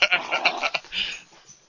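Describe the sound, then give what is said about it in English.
A dog gives a quick run of shrill, high-pitched yelps, about half a dozen in rapid succession, then a longer whimpering whine that fades out. Fairly loud, with no talking. “See my, my I think my dog just got struck by lightning and is powered up.”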